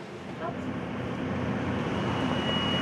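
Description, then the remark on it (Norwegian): Steady, enveloping drone inside the cabin of a parked SAS Boeing airliner as cabin crew prepare it for a flight from Oslo to Stavanger, with a constant low hum and a thin high-pitched whine running throughout, faint indistinct voices murmuring. “Kabinansatte klargjør SAS-flyet Hamder Viking for en tur fra Oslo til Stavanger.”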